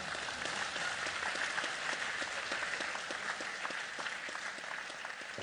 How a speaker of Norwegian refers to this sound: da fortjener en applause